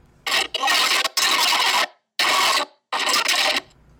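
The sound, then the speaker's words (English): A recording being fast-forwarded: loud, raspy bursts of sped-up sound in four stretches, broken by brief silent gaps, with no normal speech. “Let me let me fast forward a little bit.”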